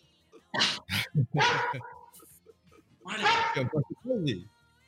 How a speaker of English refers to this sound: he thinks he's human, so he, he thinks he belongs inside of the house. So once he's outside of the house, he keeps barking.